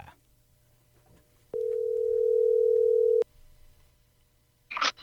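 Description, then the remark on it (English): A telephone dial tone sounds as one steady, fairly loud hum lasting under two seconds, cut off with clicks at both ends, followed by a quiet pause and a brief electronic blip. “why don't we give John Barta a call because I think he's waiting to talk about the Duramax with us”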